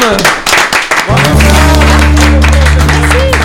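An audience breaks into applause, a dense patter of many hands clapping that carries on throughout, soon joined by a loud, steady low droning tone underneath.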